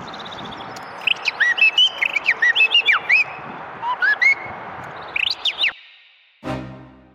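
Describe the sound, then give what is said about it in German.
A person whistles an imitation of blackbird song: bursts of fluting, warbling phrases rising and falling, with short pauses between them, fairly loud, ending with a brief rushing noise. “Ich fange jetzt an mit der Amsel.”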